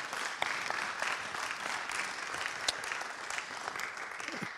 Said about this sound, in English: Give them a hand. Bless them. Encourage them.